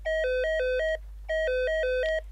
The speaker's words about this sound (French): Vers 14 heures, le téléphone du service sonne.